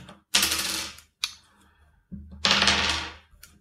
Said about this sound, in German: Gut, ich äh, würfel gerade nochmal.